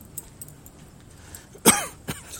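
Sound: coughing fit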